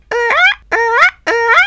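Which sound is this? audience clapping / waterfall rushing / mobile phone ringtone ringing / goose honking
goose honking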